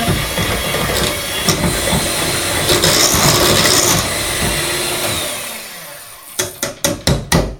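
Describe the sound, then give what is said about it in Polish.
An electric mixer whirs loudly and steadily through batter for tortilla pancakes for about six seconds, then winds down and stops, followed by a quick run of five sharp knocks. “Możemy stopniowo zwiększać obroty.”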